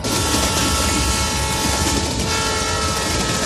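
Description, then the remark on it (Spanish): A Trans-Siberian passenger train rumbles steadily along the rails across the Siberian steppe, a loud, continuous mechanical roar with dense low-end rattling and faint tonal hum throughout, unbroken with no voices. “Este coloso de acero avanza imperturbable a través de la inmensidad su rugido mecánico resuena en la quietud del paisaje”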